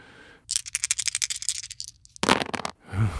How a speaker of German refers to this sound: 1 zu 3 und Moment, ich werfe die Würfel.